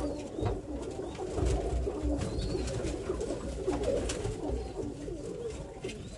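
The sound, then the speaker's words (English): Pigeons coo steadily in a busy chorus, low throaty murmurs overlapping without pause, with a faint rustle of wings and movement in the background; the birds are molting heavily. “Right now, I'm just looking over the birds. They're molting real bad right now.”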